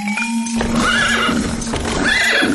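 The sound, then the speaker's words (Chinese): A horse whinnies twice in loud, quavering bursts, each a high wavering call that rises and falls, over a steady low hum with no talking. “不是，那是马。”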